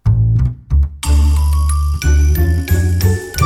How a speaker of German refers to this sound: Und ich spiele mal unseren schönen Jingle dafür ab.